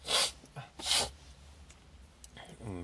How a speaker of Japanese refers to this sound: 急にくしゃみが出ちゃったから で、僕はこれをカットせずそのまま流すっていうね。